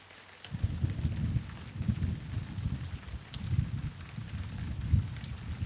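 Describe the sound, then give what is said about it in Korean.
Low thunder rumbles and rolls continuously for several seconds, deep and moderately loud, with a steady rain-like hiss above it and no voices; it follows a flash of lightning far ahead that lit up low clouds. “이윽고 잠깐 모든 게 멈추더니 마침내 천둥이 낮게 으르렁거리는 소리.”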